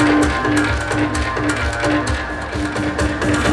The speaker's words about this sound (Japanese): これ鳴子の音です